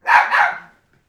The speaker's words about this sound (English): There's Riley making his appearance on the podcast, doing a little bark.